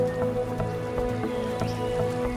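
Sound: rain falling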